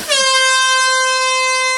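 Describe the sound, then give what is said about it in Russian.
One loud, steady vuvuzela blast: a buzzy, brassy monotone that starts abruptly and holds at full volume for almost two seconds, alone with no voices. “Он э, заходит, как ни в чем не бывало, садится на стул, подпрыгивает от этого вузела, дальше понимает, что, что, что произошло, садится”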